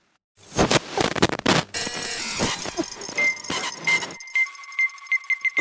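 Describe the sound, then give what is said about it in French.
Harsh radio static crackles and hisses while a dial sweeps through stations on a radio being tested in a demonstration as a tool to locate ghosts, with bursts of noise, brief warbling tones and steady whistles cutting in and out. “Une radio pour les localiser.”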